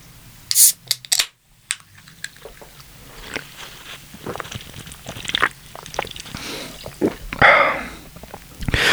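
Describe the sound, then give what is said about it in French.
A cold can of Perrier sparkling water is cracked open with a sharp metallic click and burst of hiss, spilling everywhere, followed by several seconds of crackling, popping fizz with scattered small clicks. “J'en ai foutu partout en l'ouvrant, comme ça ça fait un peu comme si c'était une pub.”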